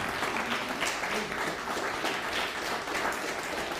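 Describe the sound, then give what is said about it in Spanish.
An audience claps steadily for the Eternal (God), a dense wash of many overlapping hand claps at even loudness throughout with no voices standing out. “Denle un fuerte aplauso al Eterno.”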